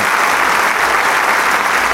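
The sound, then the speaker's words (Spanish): Sustained, loud applause from a large concert audience at the Teatro Isauro Medicinal after Beethoven's Ninth Symphony, as the soloists and conductor bow; a dense, steady wash of countless clapping hands that stays even throughout with no pauses or voices standing out. “Ante el aplauso”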